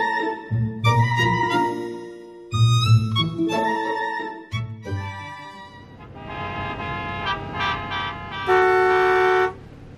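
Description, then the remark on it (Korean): Several car horns honk repeatedly in traffic, overlapping short toots and longer blasts, with a sustained loud horn near the end over a rumbling engine background. “나는 뭐 안 가고 싶어서 안 가냐. 눈으로 보면서도 빵빵거려.”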